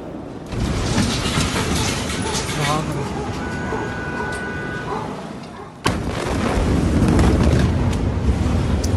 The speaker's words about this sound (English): At least 100 people have lost their lives and around 4,000 people are injured after a catastrophic explosion in the port in Lower Beirut. The blast, as you saw there, felt as far away as Cyprus, some 240 kilometres away.